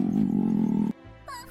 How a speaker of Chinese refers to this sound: 你的肚子叫得真厉害，那我们赶快走吧。